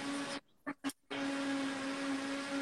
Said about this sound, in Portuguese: Não, que eu tô ouvindo tipo um barulho de liquidificador. Meu, ô, marido, fecha a porta, né?